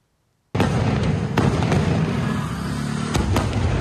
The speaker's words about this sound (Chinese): 有人伫咧市区翕到夜空当中，熊熊出现高空的烟火，火球烟火有够水，毋过那会敢若怪怪。烟火 的声音不嗲大声，而且时间有八分钟遐尼久，比跨年搁较长。